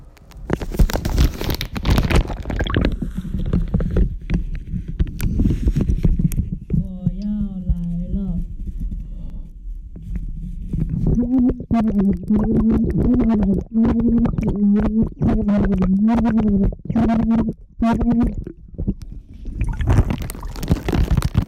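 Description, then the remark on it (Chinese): Muffled, low-end underwater recording from a phone placed in a sink filled about eighty percent with water, tap turned off: gurgling, rumbling water noise at first, then a dull, waterlogged voice reciting the digits of pi steadily in a rising and falling tone. “同时，现在水已经灌到八分满，关水。好，我要把手机放到洗手槽了。”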